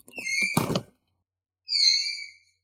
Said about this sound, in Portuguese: Galera, esse, esse choro no fundo é, é o meu. cachorro? É, vou ter que abrir a porta.